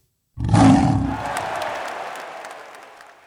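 A single loud lion roar bursts in abruptly, deep and rumbling, then fades into a long echoing tail. No one speaks.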